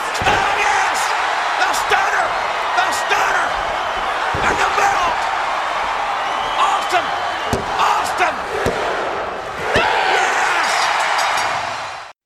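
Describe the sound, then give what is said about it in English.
Sharp, flat slaps on a wrestling mat, referee Earl Hebner's one-two-three count, ring out over a constant roaring crowd. Cheers and shouts stay loud and dense throughout. “And as you've just heard, the one, two, three.”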